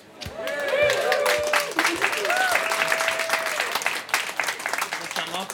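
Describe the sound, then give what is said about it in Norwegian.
A live audience at the Bylarm music festival applauds steadily for several seconds, dense overlapping claps with some cheering and whoops, loud, tapering off near the end. “Vi har fått publikum.”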